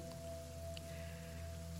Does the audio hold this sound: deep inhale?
no